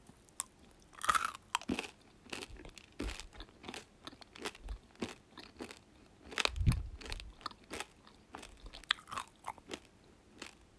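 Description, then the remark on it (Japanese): Crisp crunching as someone bites and chews a German Mermaid Mix soft candy with a crispy coating, with repeated sharp cracks and crackles in an irregular rhythm, no talking over it. “う多分この、周りがカリカリで、いい音がするから、よく、あの、一般の人は、ASMR の方とか食べてるんだと思います。”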